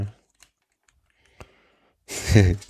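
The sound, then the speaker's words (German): A handful of soft, scattered keystrokes tap on a computer keyboard as someone looks something up, in near silence, spaced irregularly, before a voice begins speaking at the end. “klicker, klicker, klicker, gleich mal nachgucken.”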